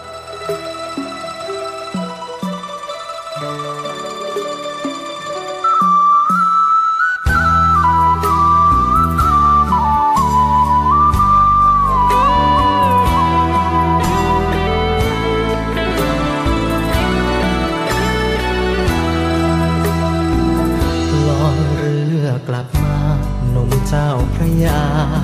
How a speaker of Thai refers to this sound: เดี๋ยวช่วงนี้เบรกฟังเพลงกันสักครู่ครับเดี๋ยวช่วงหน้ามาคุยกัน